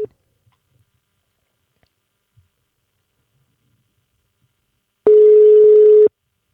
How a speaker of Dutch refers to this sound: Hij is officieel nog een kwartier aan het werk, dus ik hoop niet dat zijn baas luistert, maar we mochten hem wel even inbellen. Dus dat gaan we dan maar even doen.